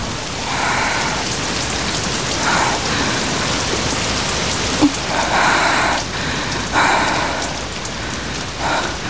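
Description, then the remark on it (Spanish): Steady rain pours down in a dense, hissing wash, with heavier gusts swelling in waves every couple of seconds and a single sharp drip or knock near the middle. No voices. “Las manos de Amanda atravesaron la cortina de lluvia.”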